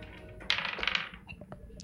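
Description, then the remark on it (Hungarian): Dice rattle and tumble across a hard surface in a bright, brief clatter as players roll for a perception check in a tabletop role-playing game, followed by a few scattered light clicks as they settle, with one last sharp tap at the end. “Egy épület mellett, itt egy perception próbált, dobjatok, légy szíves nekem.”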